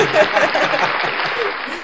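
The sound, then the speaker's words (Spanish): A burst of steady crowd applause, dense and fairly loud, holding for about two seconds before tapering slightly, with faint traces of voices mixed in. “Ay, un aplauso, un aplauso.”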